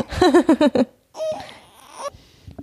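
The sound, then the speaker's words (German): A baby girl fusses in a string of short, wavering whimpers, then lets out a longer, strained whiny cry that trails off into quiet. “Oh, jetzt wird sie wieder knatschig.”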